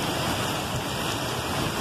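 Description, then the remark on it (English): Heavy rain pours down during a thunderstorm with lightning, recorded on a phone, in a steady, dense hiss with a low rumbling undertone, continuous for the whole moment, with no voices. “Rain doesn't show up very well on the phone, but it's crazy.”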